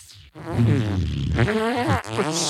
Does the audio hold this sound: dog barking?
no